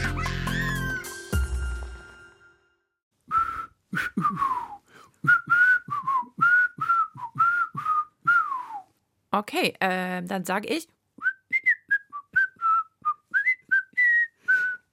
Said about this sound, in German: Ich dachte, ich könnte die Begrüßung heute mal pfeifen. Hat man das nicht verstanden? Mm, man hat es nicht verstanden und ich finde, es war jetzt auch nicht so ein richtig schönes Pfeifen. Ich wollte pfeifen.